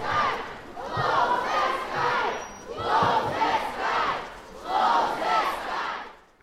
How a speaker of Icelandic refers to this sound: Close the sky, lokið himninum, öskrar mannfjöldin á sömu mótmælum og heyrðist frá í upphafi þessa pistils. Mótmælinn fóru fram í Varsjá í sama mund og Joe Biden bandrækjaforsetti rendi inn í borginna